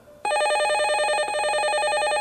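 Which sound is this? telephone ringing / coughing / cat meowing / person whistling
telephone ringing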